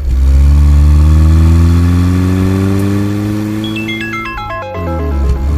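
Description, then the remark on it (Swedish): A Porsche flat-six (boxer six) engine growls loudly behind the driver's back, its pitch climbing steadily under load before a series of quick stepped shifts near the end. No voices. “men när den där Porsches boxer 6 ryter till bakom ryggen så inte det är ju en robot som ska få ha roligt då, utan jag.”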